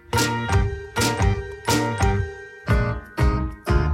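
A doorbell chime rings out several times in quick succession, bright ringing tones with a lingering shimmer, fairly loud with no voices.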